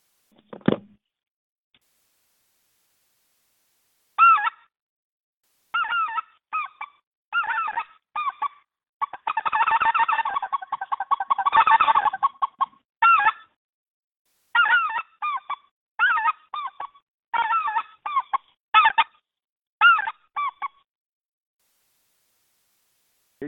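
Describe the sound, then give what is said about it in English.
A person imitates speckle-belly goose calls, likely with a goose call, producing loud, rapid bursts of high yodeling honks and clucks in rhythmic series with short pauses, alone without talk, heard through a phone. “If you if you let me put if we let me put this phone down, I'll I'll try to sim I'll try to simulate a speckle belly.”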